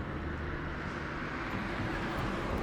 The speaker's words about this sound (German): Achtung, warte jetzt kurz, jetzt kommt ein Auto. Wer Hintergrundgeräusche weiß, sind da. Gott sei es gedankt. Zwei Autos.